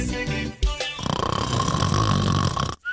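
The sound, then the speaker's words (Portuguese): A single long, rasping snore drones loudly for nearly two seconds, following a short jumble of brief sounds, and then cuts off abruptly. No one speaks. “Quinta-feira o pessoal já tá sem pilha, meio roncando aí tá por aí, né?”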